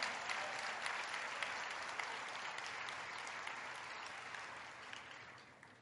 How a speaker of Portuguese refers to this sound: Pode aplaudir Jesus.